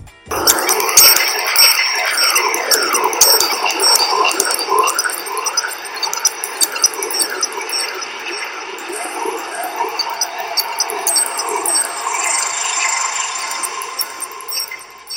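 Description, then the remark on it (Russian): A sonified gravitational wave from the collision of two black holes more than a billion years ago: layered electronic tones that sweep up and down in repeated chirps, holding a fairly steady loudness for about fifteen seconds with no talking. “Столкновение двух черных дыр, произошедшее более одного миллиарда лет назад, звучит так.”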